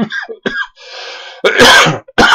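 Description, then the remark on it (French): A person coughs several times, starting with short throaty bursts, then a raspy breath and two loud, harsh coughs. “Je me demandais à partir de quand j'allais tousser.”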